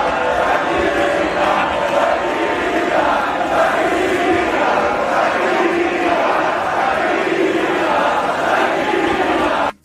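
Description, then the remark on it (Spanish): A packed nightclub crowd loudly and rhythmically chants a name in unison as a man appears on stage, many voices rising and falling together in a steady repeated pattern without pause. “El público lo ha recibido con esto.”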